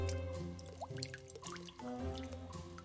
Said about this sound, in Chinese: 哦，突然下雨了。